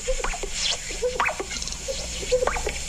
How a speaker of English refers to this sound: And that is the sound of a male greater sage grouse, that iconic and now threatened denizen of western sagebrush country.